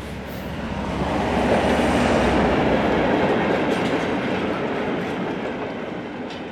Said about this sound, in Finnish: Matka Leningradista Petroskoihin taittui yöjunalla pitkin Murmanskin rataa.